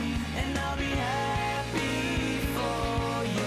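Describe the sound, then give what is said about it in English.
A full rock band plays with steady drum hits, and a bright trumpet line sits in the background of the mix, with no voices. “but like later on in this song there's definitely like horns i don't know how well you can hear it but there's like a trumpet in the background right now”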